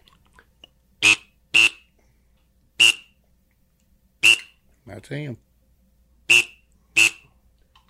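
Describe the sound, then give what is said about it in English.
A gadwall duck call, made from a whistle glued into the end of a quack call, is blown in six short, sharp, loud whistling toots at uneven intervals, with a brief spoken remark in between. “I'm just going to build a duck call we wanted to get them all. Look here. Here is a gadwall.”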